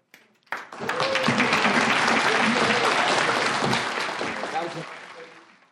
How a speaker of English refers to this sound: And a round of applause for her cake.